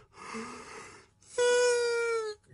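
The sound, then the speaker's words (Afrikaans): A person yawns: a breathy, airy intake followed by a loud, drawn-out voiced groan that slowly sinks in pitch before trailing off. “Ja, maar nou raai gaap. Ek het nie gisterand baie slaap gekry nie.”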